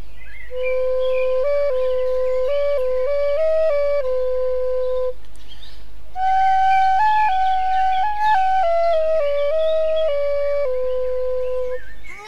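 A Thai pi reed pipe plays a slow, stepwise melody in two sustained phrases separated by a short pause, loud, with no voices.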